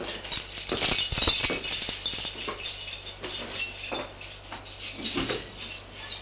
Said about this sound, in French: Arrivée au son étage, elle va ouvrir sa porte.